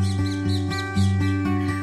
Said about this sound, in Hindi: आप अपने बिस्तर में अंगड़ाई लेते हुए उठ ही रहे हैं कि अलार्म क्लॉक के बजाय आपको ये क्या उठाता है अरे बालकनी पे आई एक चिड़िया की चहचहाहट वाह क्या गुड मॉर्निंग हुई है अलार्म के बगैर चिड़िया की आवाज के साथ